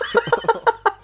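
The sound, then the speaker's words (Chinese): A person imitates a pig with a quick series of five or six short, nasal, high-pitched squeals, each a brief loud burst with small gaps between, and no other talking. “发出猪叫”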